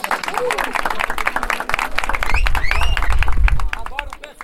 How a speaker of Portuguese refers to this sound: Palmas!